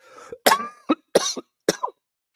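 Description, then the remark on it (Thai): Three forceful coughs in quick succession, each a sharp burst with a short follow-up catch, with no talking. “ขอยัดไอหน่อยนะขอยัดมีเสียงไอนิดนึง”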